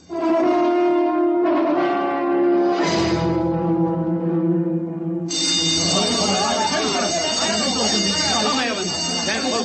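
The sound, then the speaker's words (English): A change bell rings out with sustained, resonant tones for several seconds, loud, before a dense wash of noisy, chattering sound takes over while the ringing fades underneath. “Once again, the change bell has sounded.”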